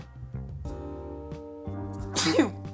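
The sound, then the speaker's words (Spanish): A drawn-out voiced inhale, a few rising 'ah' sounds building up, then one loud sneeze bursting out near the end. “Así ah, no tengo un estornudo”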